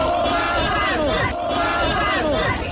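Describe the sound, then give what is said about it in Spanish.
A large protest crowd of citizens gathered in the city centre of Cali, Colombia, protesting against the FARC and the government of Juan Manuel Santos under the slogan "No más FARC", chants in unison, loud and continuous, with a rhythmic rise and fall of many voices blending into a dense roar throughout. “Con el lema No más FARC, los ciudadanos siguen concentrados aquí en el centro de la ciudad.”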